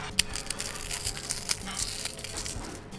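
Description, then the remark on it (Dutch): Dry, brittle crunching as a nacho cheese flavor Bugles corn snack chip is crushed by hand over a slice of bread, a rapid series of sharp crackles and snaps over about three seconds, fairly quiet, with no talking. “En die verpulver ik boven die boterham.”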